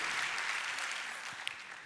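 crowd, audience applauding

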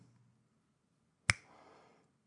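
human body sound, finger snap

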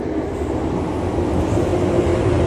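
vehicle, train running on rails

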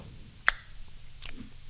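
human body sound, loud chewing

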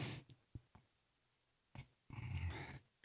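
human body sound, nose sniffing

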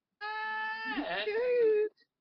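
animal, cat meowing

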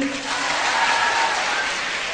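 crowd, audience clapping hands

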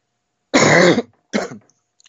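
human body sound, coughing and throat clearing

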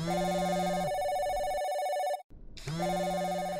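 signal or alarm, telephone ringing

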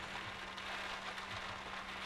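nature, rain falling

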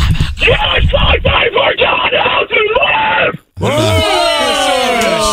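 human body sound, man screaming loudly

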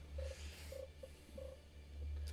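animal, cat purring

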